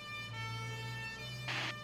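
A fire truck siren sounds a steady, tonal wail over a low engine rumble as the truck speeds toward a fire, fairly loud, with a short hissing burst near the end.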